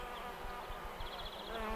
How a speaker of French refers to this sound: Des abeilles viennent se poser sur lui comme pour lui dire bonjour.